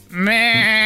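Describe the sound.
Someone imitates a goat with one loud bleat, a nasal, wavering 'meh' held for just under a second, with no other voices or sounds around it.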